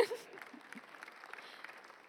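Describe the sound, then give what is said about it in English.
An audience claps for Jesus during a sermon in a steady, crackling patter that carries evenly for a couple of seconds, with a faint murmur of voices underneath. “You can clap for Jesus if you want.”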